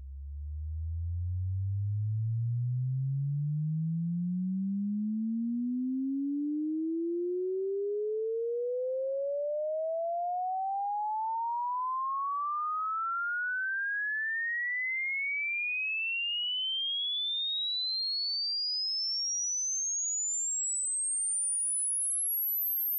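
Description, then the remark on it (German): A pure sine tone sweeps smoothly and steadily upward from a deep low hum to a piercing high whine over about twenty seconds, holding an even loudness throughout with no voices. “Das hier sind die Bereiche von 20 Hertz bis 20 Kilohertz und ihr könnt ja mal hören, ab wann ihr was hört und ab wann ihr nichts mehr hört.”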